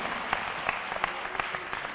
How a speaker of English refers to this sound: Let's give our young, uh, young uh, youth choir a hand clap. Praise his name. Thank you.